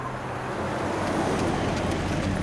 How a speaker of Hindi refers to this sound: एक मिनट इतना कहकर राहुल ने अपनी कार उस बूढ़े के नज़दीक लाकर रोक दी